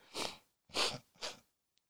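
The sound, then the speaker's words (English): A person gives three loud sniffs in quick succession, each a sharp noisy intake of air right against the microphone, with a brief pause between them and no talking. “I'm sorry I'm sniffing like this on the mic.”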